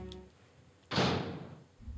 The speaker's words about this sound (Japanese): なんか子供が大人は通れないけど子供が通れそうな、えーフェンスがありますね扉を開けてみます